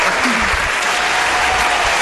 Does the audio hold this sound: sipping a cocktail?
no